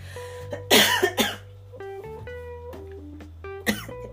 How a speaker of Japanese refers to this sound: 咳がねコロナの後の咳が抜けなくて違うだんだんなんか違う咳になってきた気がしてちょっと咳込みながらでごめんなさい